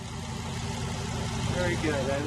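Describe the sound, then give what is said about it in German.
Race car engines roar steadily and loudly throughout on a newly built race track in Detroit, on a former factory site, a dense continuous rumble with no breaks, while a voice talks over the engine noise. “Nach Pleite und Abriss dröhnen jetzt wieder die Motoren.”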